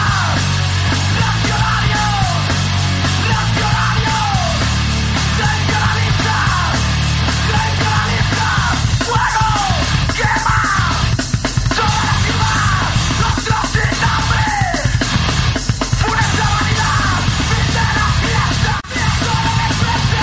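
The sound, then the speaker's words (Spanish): A loud song plays throughout, with shouted, yelling vocals over dense, driving instrumentation and heavy low end, staying at a steady, full volume for the whole stretch. “vamos a escuchar que precisamente hablando del ego tenéis, un tema que, habla totalmente del ego”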